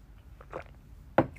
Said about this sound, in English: Let me have a sip of water